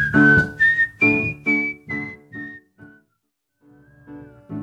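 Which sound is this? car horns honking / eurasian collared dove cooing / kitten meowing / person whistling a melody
person whistling a melody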